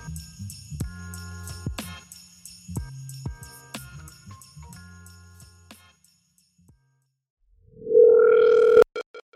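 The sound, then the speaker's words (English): A phone rings with an electronic, chiming melody of plucked tones, then gives a loud, steady electronic tone that cuts off abruptly after under a second. No one speaks. “okay that was a little too quick of a ring in that he just did for me you'll never hear it but i wasn't ready yet”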